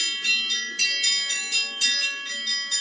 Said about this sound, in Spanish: el sacristán tocó las campanas para llamar al rosario